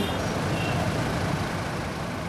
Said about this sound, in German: Bereits in den frühen Morgenstunden herrscht in den schmalen Straßen von Darjeeling reger Verkehr. Stoßstange an Stoßstange schieben sich die Autos nach vorne. Eine echte Geduldsprobe für viele Fahrer.